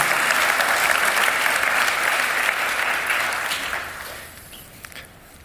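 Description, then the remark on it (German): A church audience claps steadily for people being thanked, a dense wash of applause that holds for a few seconds, then thins and fades out, leaving a few scattered claps at the end. “Ja, ihr dürft ihnen auch einen Applaus geben, das ist gut.”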